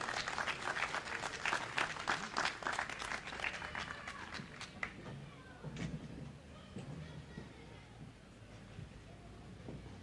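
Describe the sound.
An audience breaks into applause, dense clapping strongest in the first few seconds and then thinning and fading, with some voices and cheering mixed in beneath.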